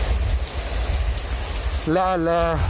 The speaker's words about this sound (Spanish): encharcamientos precisamente por toda esta agua que está cayendo en estos momentos a causa de la tormenta tropical Hernán como podemos observar pues este los, el intenso oleaje que en estos momentos se está registrando este, y los fuertes vientos